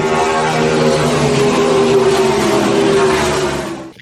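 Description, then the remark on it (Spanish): A car engine in first gear revs loudly and steadily as the accelerator is pressed, its pitch climbing as it accelerates, then fading out over the final half second. No voices are present. “Ponemos la primera velocidad. Pisamos el acelerador.”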